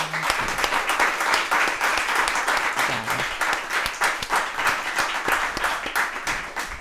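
Sustained audience applause, many hands clapping in a dense, steady crackle at an even loudness for several seconds, with no voices standing out.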